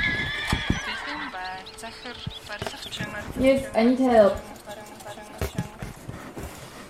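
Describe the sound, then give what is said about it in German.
Age of Empires strategy game sound effects play loudly: several sharp horse whinnies and neighs over clip-clopping hooves and clattering, with a man speaking briefly at the start. “Ja, ich spiele mal noch ein paar Age of Empire Geräusche ein.”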